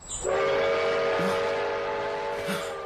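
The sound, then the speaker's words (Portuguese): A train arrives at a station with a long, loud horn blast held steady over rumbling, hissing rail noise, lasting nearly three seconds with no talking. “Ah, o trem chegou.”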